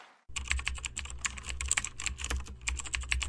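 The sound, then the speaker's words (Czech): Rapid typing on a laptop keyboard, a few quick keystrokes before the laptop is closed, a steady stream of light clicking over a low background hum, with no voices. “Po pár těch úderech do klávesnice zavírám počítač a mířím znovu k hemicyklu.”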